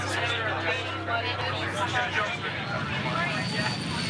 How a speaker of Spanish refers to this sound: El avión, el avión, el avión, el avión.